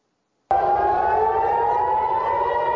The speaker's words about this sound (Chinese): 以色列第二大城特拉维夫响起空袭警报，正在海边戏水的游客拔腿狂奔，寻找掩蔽。